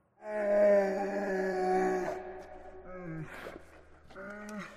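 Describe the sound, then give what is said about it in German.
A deep, drawn-out bear growl rumbles in a cave for about two seconds, followed by two shorter groaning snarls that drop in pitch, moderately loud, with no talking. “Schon nach wenigen Metern machte sich der Bär bemerkbar, welcher die Höhle bereits für sich einnahm.”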